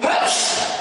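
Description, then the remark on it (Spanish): A single loud sneeze: a sharp, breathy burst that starts abruptly and fades over under a second, with no talking. “Salud.”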